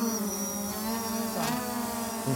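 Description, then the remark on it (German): A drone fitted with a thermal imaging camera takes off from a meadow near the Altmühlsee to fly an automatic, pre-stored mission. Its motors whine with a steady, loud buzzing hum that dips and swells in pitch partway through as it lifts off, with no voices. “Wumm, und da ist sie losgeflogen.”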